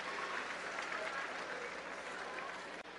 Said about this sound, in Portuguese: Palmas para os nossos guardiões aí, que prepararam essas máscaras para nós.